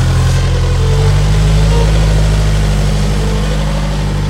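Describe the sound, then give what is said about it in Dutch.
A small loader with a vibrating plate compactor mounted on its fork drives past on a town square, its diesel engine a loud, steady low throb with a mechanical drone, and no talking. “is een soort uh, eh, shovel iets. ding met, eh, met zo'n trilplaatmachine voor op de vork.”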